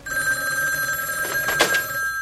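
A telephone bell rings insistently, a steady metallic tone with bright harmonics sustained throughout, fairly loud, with a brief burst of rattling clatter near the end.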